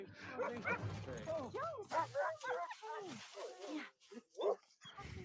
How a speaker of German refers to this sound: Ach, Schäferhunde, ich liebe sie.